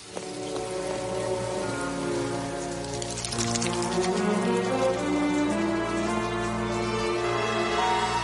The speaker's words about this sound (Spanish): Eh, bueno, empezó a llover, pero no puede culparme por eso, ¿verdad?